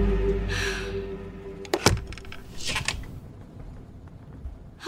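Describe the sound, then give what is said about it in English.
A door opens with a couple of sharp latch clicks, followed by a brief scraping rustle as it swings, over a low hum. “Open up the door and tell me what's gone wrong now.”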